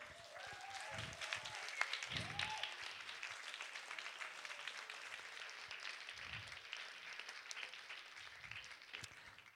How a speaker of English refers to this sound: Please, big, big, big applause again for them.